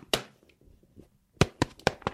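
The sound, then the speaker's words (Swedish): Sharp knocks of a hard iPad case against a microphone: one loud tap, a pause, then a quick run of four firm, clacking raps in an uneven rhythm. “Jag knackar nu i mikrofonen så ni hör. Det är liksom, det är hårt.”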